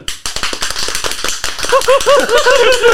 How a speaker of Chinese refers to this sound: 各各位有没有觉得我们今天的掌声分量好像特别够了哦？因为旁边多了两位旁听的